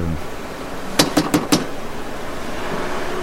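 A man knocks four sharp times in quick succession on a door in a video scene set in a bourgeois living room, fairly loud and evenly spaced, over a low steady background hum with no talking.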